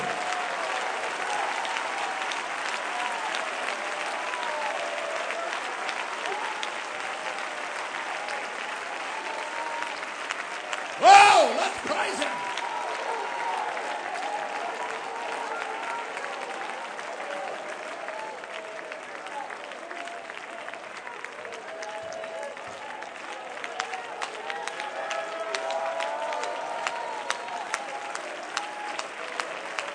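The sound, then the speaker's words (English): An audience of young people, urged to clap their hands and believe God, claps steadily for the full length, a dense, crackling patter over a murmur of voices, with one sharp louder burst partway through before the clapping carries on. “You young people that's goofy enough to believe with me without hesitation, clap your hands and believe God with me.”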